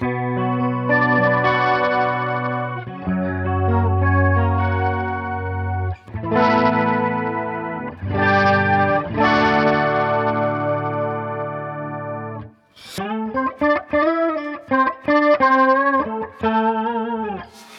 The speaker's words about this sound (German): Genau, und jetzt mache ich das Tiefe mal weg. Genau, mach das Tiefe mal weg, ja. dann kriegt man nämlich so einen trash string sound so ein bisschen.